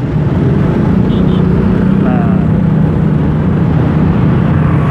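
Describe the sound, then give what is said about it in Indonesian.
Constant loud engine rumble from heavy, jammed road traffic on both sides toward Pondok Indah, many motorcycles among it, some riding against the flow; a dense low drone of motors with a few brief higher tones, and no break across the whole stretch. “rupanya di sini juga banyak motor yang langsung lawan arah ya”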